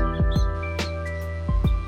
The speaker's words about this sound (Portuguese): Vou mostrar vou mostrar minha, minha rua. É, só tem passarinho, ó.